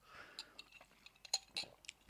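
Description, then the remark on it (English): A quiet sip of cold brew coffee mixed with a dash of vanilla milk: a brief slurp followed by wet mouth clicks, swallowing sounds and a faint glassy clink, with no talking. “I've got this nice little cold brew that I've mixed with a dash, dash of vanilla milk inside.”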